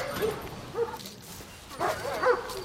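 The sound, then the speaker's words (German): Several sharp German shepherd barks ring out in two bursts, fairly loud, with short pauses between them and no talking. “Ich kaufe Schäferhunde, trainiere sie, züchte sie.”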